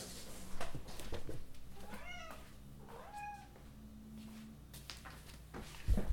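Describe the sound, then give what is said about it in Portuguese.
A cat meows twice in quick succession, clear, over a low steady background hum, with a few soft clicks and knocks near the end and no talking. “Pera aí, meu gato tá fazendo barulho.”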